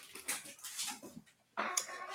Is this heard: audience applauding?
no